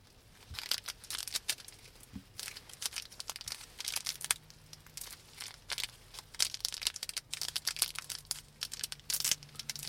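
Crackly crinkling of a Morinaga Hi-Chew candy wrapper being torn open and handled, with irregular bursts of plastic rustle continuing steadily for several seconds, fairly quiet and with no voices.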